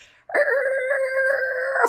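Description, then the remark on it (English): A voice imitates the far-off screeching of tires from car accidents on the interstate in Austin during bad weather, with one steady, high, strained wail held for about a second and a half. It stays loud and even, then cuts off abruptly. “like screeching far and just people in Austin don't act right when the weather's off.”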